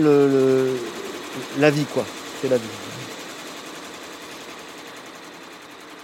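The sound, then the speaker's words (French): A multi-head embroidery machine, its several heads embroidering several products at the same time, hums and chatters with a steady, rapid mechanical stitching noise that runs throughout, while a man speaks briefly over it near the start before it continues alone. “on a plusieurs têtes qui permettent de broder plusieurs produits en même temps”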